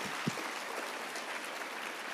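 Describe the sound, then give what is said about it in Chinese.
A crowd applauds steadily, a dense wash of many hands clapping at once, with one sharper low thump early on and no voices above it. The applause is for the young people who organized the activities. “来，我们再次给这些啊我们办活动的拍拍手吧。”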